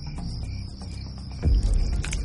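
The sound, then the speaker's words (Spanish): A thin, steady mosquito whine hovers over a low rumble, with a soft, deeper thud about halfway through as the mosquito lands on a woman's arm; no voices. “Un mosquito aterriza en el brazo de una mujer.”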